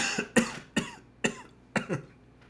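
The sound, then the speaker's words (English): A person coughs repeatedly, about five sharp, rough bursts in quick succession, the last two nearly back to back. No one speaks. “I'm coughing because I can't pronounce that.”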